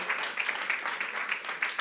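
A short burst of steady group applause of thanks, many hands clapping in a dense, even patter at moderate loudness with no voices over it.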